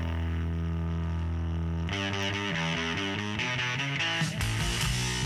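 A loud, distorted rock guitar riff: a held droning chord for about two seconds, then a choppy, repeating pattern of quick chord changes over a full band. No voices.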